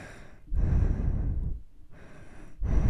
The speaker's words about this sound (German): Der, der immer in sein Mikro atmet.